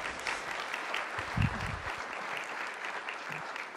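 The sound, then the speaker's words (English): A church audience claps steadily for the worship team in a dense, sustained, even round of applause, with no voices standing out above the clapping. “Why don't we give them a, a round of applause as well?”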